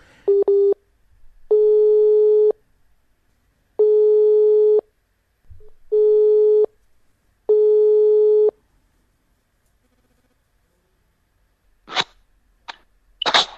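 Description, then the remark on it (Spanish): A telephone busy signal after a dropped call repeats in steady tonal beeps, five evenly spaced pulses, clear, followed by a few short sharp noises like a sneeze and sniffs near the end. “Estábamos con algunos problemas de, conexión, pero eh, eh, vamos, vamos a tratar de, mantener este contacto.”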